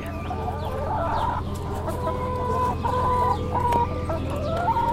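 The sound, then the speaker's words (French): Hens cluck and chatter continuously at the farm of Castel Gandolfo, which supplies the Vatican, several birds calling over one another with a steady background hum, no one speaking. “Alors on est, on est là à Nadelia, dans la ferme de Castel Gandolfo, la ferme qui euh, alimente en en poules, en, peut ah. les entendre, en viande, en lait, le Vatican.”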